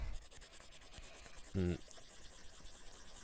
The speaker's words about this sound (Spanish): Está haciendo círculos con el lápiz, no está escribiendo.